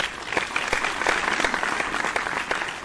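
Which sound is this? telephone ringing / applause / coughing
applause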